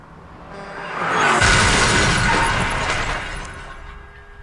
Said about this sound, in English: All right, so that was their sort of introduction, and at the end, you know, you hear the bus crasher, that the bus, you know, crashes. You hear that sound.